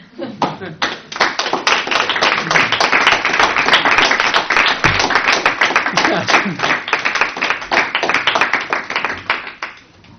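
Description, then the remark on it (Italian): An audience breaks into sustained applause, many hands clapping in a dense, steady crackle that swells quickly, holds loud for several seconds, then begins to thin out toward the end. “Non ho, non ho, non ho, non ho la frase finale che stappa l'applauso, quindi ho finito.”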